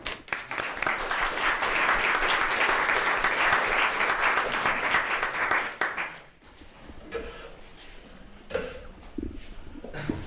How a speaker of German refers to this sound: Nochmal Applaus bitte.